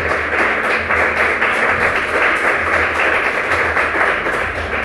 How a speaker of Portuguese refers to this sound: Pode aplaudir o Senhor Jesus, pode aplaudir.